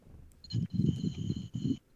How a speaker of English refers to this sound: Oh yeah, that's cricket.